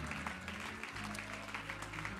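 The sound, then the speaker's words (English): A worship crowd claps hands steadily to give God praise, a dense, continuous patter of many hands, over sustained low keyboard chords that shift once partway through. “Would you clap your hands one more time and just give God praise that you have breath in your body today?”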